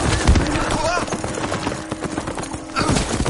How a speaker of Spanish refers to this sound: Benur y Mesala corren en paralelo. Giran juntos en torno a una gran roca. Cabalgan hacia una fila de piedras colocadas en el suelo. Benur cruza primero. Su caballo cae.